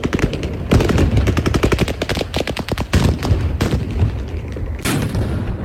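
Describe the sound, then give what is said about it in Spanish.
Bursts of rapid automatic gunfire crack out in dense volleys, with sharp shots overlapping and echoing, loud, interrupted by brief pauses and a few heavier single reports, as Russian troops fire from buildings at protesters in occupied Kherson, Ukraine. “el sonido de los eh, disparos eh, contra los manifestantes que denunciaba el presidente Zelensky.”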